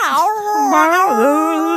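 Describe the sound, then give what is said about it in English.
A male cat meows loudly in a long, wavering, almost continuous run of yowls, its pitch dipping and rising several times, with no other sounds around it. “He was just meowing so uh, I, loud, and then all of a sudden you just hear.”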